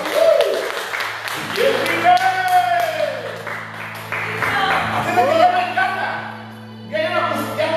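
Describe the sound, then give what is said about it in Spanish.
A church audience, standing, applauds steadily for several seconds in praise of the Lord, the clapping mixed with scattered shouts and cheering voices, while sustained low instrumental tones hum beneath the crowd. “¿Cuántos alaban y bendicen al Señor? Un aplauso, por favor.”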